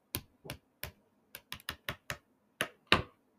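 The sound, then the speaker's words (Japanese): Stiff, thick paper pages of an art exhibition leaflet of about 16 colour pages featuring Richter's works being flipped, about ten crisp, snappy rustles in an uneven rhythm, a few coming in quick pairs, with no one speaking. “でこのリーフレットがとにかく良いということで、そう、このリーフレット、今ね、手元にあるんですけど、すごいしっかりした紙で、音聞こえますかね”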